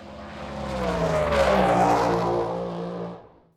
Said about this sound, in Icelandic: Vélinn hefur tekið við sér og þó ekki sé allt komið í sama horfið aftur vil vélinn gefa í og fara hraðar.